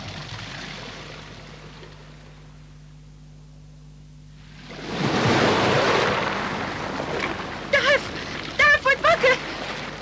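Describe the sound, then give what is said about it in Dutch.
After a few seconds of low, quiet rumble, an ocean wave rushes up onto a sandy beach under a warm sun with a broad hissing wash that lingers, the water advancing closer up the beach, while brief voices call out near the end. “Het water komt dichterbij. Wat? Het komt naar ons toe.”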